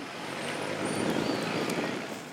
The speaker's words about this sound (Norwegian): Han står oppi en diger søppelcontainer og enser ikke trafikken som stryker tett forbi.